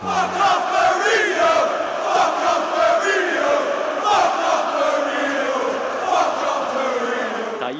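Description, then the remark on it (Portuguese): A large crowd of Newcastle football fans chants loudly and continuously in unison for Mourinho, voices rising and falling in a rhythmic, sing-song pattern with a steady roar underneath. “todo o carinho da torcida do Newcastle com o Mourinho.”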